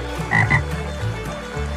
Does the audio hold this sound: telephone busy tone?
no